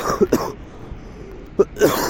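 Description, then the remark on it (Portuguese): Several loud chest coughs in two clusters, a quick double burst, a pause, then a rougher hacking run clearing phlegm from the throat, from a person on the way back from a workout. No talking is heard. “Não consigo parar de tossir, ter essa, essa tosse, esse negócio que vem do peito, sabe?”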